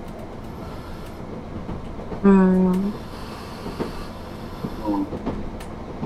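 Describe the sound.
A train rolls along the railway line with a steady rumble on the Nemuro Main Line and Sekisho Line route between Obihiro, Shintoku and Minami-Chitose in Hokkaido, Japan. A short, loud tonal blast sounds near the start, and a voice briefly murmurs over the running noise.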